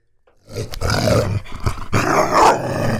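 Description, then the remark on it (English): A dog growls loudly and continuously for a few seconds, its rumbling snarl broken by a few sharp, harsh barks; no one speaks. “Cut off a, a bark box account. Let this motherfucker on here. What he's saying, it's translated.”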